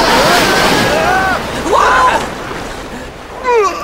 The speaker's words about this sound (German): Die Flut kommt!